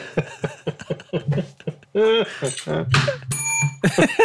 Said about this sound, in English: the bell's back.